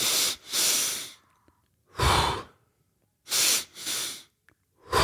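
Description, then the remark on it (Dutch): Heavy, breathy panting through the mouth by a person after exertion, about four loud rushing breath bursts in uneven rhythm with short pauses between, with no talking. “je staat op je knieën uit te hijgen. De meeste mensen doen dat ook door de mond Die staan dan uh, zo, te, eh, zo eh, naar, de, naar de inspanning.”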